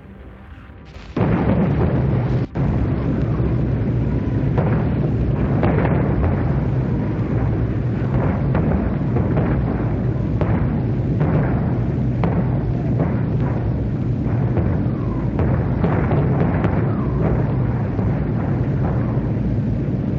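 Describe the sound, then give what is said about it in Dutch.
Loud, continuous low droning of Marauder bomber aircraft fills the scene, punctuated by repeated booming British artillery cannon shots at an irregular rhythm, fired at a church tower. The din begins abruptly and stays dense throughout. “Het gedreun van de vliegtuigen vermengde zich met het ritmische kabaal van de kanonnen.”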